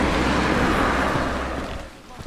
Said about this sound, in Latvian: Pamatīgi apmācies, līst. Lietus noskalo putekļus no karā izpostītās balaklijas ēku jumtiem, sitas istabās caur sprādzienos izbirušajiem logiem un izšķīst lādiņa eksploziju izrautajās bedrēs.